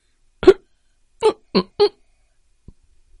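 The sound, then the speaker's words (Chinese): A baby hiccups four times: one sharp, breathy hic, a short pause, then three more in quick succession, followed by a faint click and silence. No talking. “会咕咕叫，咕咕咕咕，还打嗝，”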